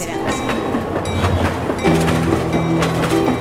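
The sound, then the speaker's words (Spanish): A train rolls steadily along the rails with a loud continuous rumble, rhythmic clacks of wheels over track joints, and a droning mechanical hum rising partway through. “Trenes, trenes y trenes.”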